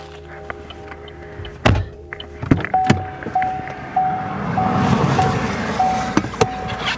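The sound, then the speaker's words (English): A car drives by on a road, passing over a newt without hitting it, its broad rumble swelling over a few seconds and easing away, with a few sharp thumps and a faint repeating high tone. “They just they just ran over a newt, but they don't I don't think they hit it.”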